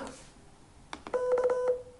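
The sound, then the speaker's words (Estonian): Morse code beeps for the letter K (long-short-long) sound out as a steady mid-pitched electronic tone about half a second long, broken by sharp clicks, with a few faint clicks just before it and no talking. “pikk, lühike, pikk või? ta, ta, ta.”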